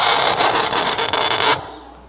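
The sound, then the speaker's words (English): A harsh, grating screech like a fingernail dragged across a chalkboard, loud, holding steady for about a second and a half before cutting off abruptly. “Sometimes it's squeaking pains, but sometimes it's screeching pains, like a fingernail on a chalkboard.”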